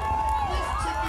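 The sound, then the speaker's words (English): A crowd cheers and shouts together as Oahu lifeguard Luke Shepardson surfs a massive wave during the Eddie Aikau, many overlapping excited voices rising at once in a loud, sustained burst of whoops and yells. “That's the sound of reactions to Oahu lifeguard Luke Shepardson surfing a massive wave during the Eddie Aikau”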